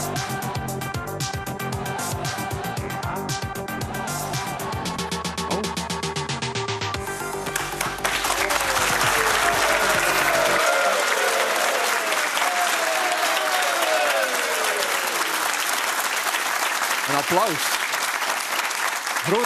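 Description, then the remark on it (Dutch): A stretch of tonal, musical sound gives way to a loud burst of applause in Alke, many hands clapping in a dense, steady roar that carries on to the end with a few brief whistles. “applaus in Alke.”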